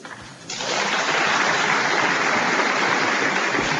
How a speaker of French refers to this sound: Les députés debout dans l'hémicycle pour applaudir, le public en majorité d'origine arménienne applaudit également. La proposition de loi reconnaissant le génocide arménien a été adoptée à l'unanimité.